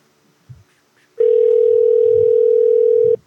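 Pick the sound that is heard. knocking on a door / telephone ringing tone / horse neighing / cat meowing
telephone ringing tone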